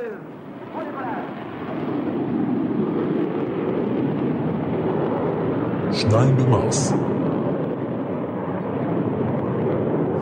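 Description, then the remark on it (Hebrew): A loud, steady roar of a supersonic passenger jet of French-British design flying fills the whole recording, dense. A voice briefly speaks a short phrase over the engine noise partway through. “ובינתיים על כדור הארץ, האנושות נכנסת לעידן חדש של תעופה. מטוס נוסעים קולי.”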